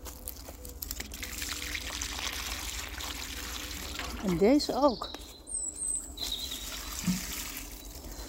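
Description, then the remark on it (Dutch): Water pours and splashes steadily for the whole stretch, a continuous hiss of liquid onto a plant in a garden, with a brief spoken remark midway and faint bird chirps in the background. “Ja, die heeft wel wat water nodig.”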